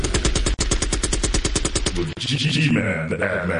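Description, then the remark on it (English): Loud bursts of rapid automatic gunfire crackle in a fast, steady rhythm for about two seconds, then give way to a rougher, rumbling tail of noise. “Shots fired.”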